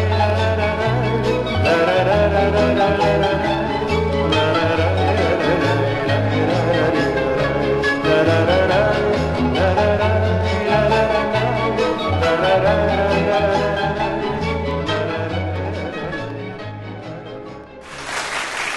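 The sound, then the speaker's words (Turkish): A full-band pop song plays loudly and steadily, with a driving bass line and layered instruments, ending abruptly near the close with a brief burst of noise. “Evet güzel bir şarkı dinledik hep birlikte.”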